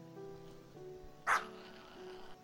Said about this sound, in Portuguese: O jovem casal repousava mansamente quando, de repente, um ogro apareceu em sua frente na forma de um grande cachorro. O cão se colocou ferozmente contra eles, mostrando todos os dentes.